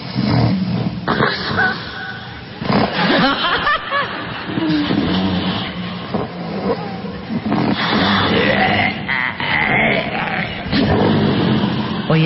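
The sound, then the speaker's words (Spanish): Loud, rough snoring of a sleeper, sent in as a recording, with partial airway obstruction: harsh rattling breaths that keep swelling and fading in strength across a continuous stretch, with no clear pauses between them; at first the breathing out is labored. “No, bueno, aquí hay, hay dos tipos de, apnea, la que es total, y esto nos está indicando una obstrucción parcial. Si se dan cuenta, va cambiando la intensidad del ronquido.”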